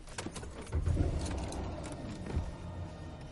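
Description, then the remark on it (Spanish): A few metallic key clicks come first, then a BMW car engine turns over and settles into a low, steady idle, with no voices. “Mathieu se cubre la cara con las manos, se tranquiliza y arranca el coche.”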